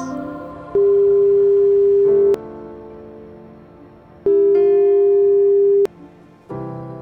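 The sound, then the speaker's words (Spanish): A telephone in a restaurant's phone booth rings twice at one in the morning, two steady electronic tones of about a second and a half each separated by a pause, with soft clicks and faint background hum around them and no voices. “El teléfono sonó dos veces.”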